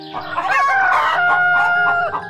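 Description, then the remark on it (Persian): A rooster crows loudly in a garden, a long drawn-out call layered over steady clucking from hens, with no talking, just a dense burst of farmyard poultry noise. “تو باغ حیوانات مختلفی هم زندگی میکردن مثل سگ، گربه، مرغ و خروس”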